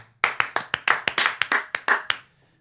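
Hands clap about ten times in a quick, steady rhythm, fairly loud, like a brief round of applause from just one or two people, with no talking.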